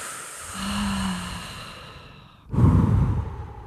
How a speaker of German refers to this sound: okay, wir beruhigen uns, wir atmen tief durch ein. Alle gemeinsam.